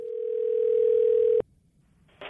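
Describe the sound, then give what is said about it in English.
A telephone ringing tone at the start of a customer's call to a restaurant placed through Grubhub plays as a single steady electronic hum for about a second and a half, then cuts off sharply. Faint line hiss follows, ending in a brief burst of noise. “When Ding was listening through all those phone calls Grubhub charged him for, he found this one.”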